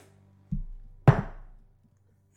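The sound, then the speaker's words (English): A large two-inch-diameter, twenty-sided die is rolled onto a hard tabletop: a dull thud, then a louder wooden knock that rattles briefly as it tumbles and settles, with no voices. “that was my two inch diameter dice rolling.”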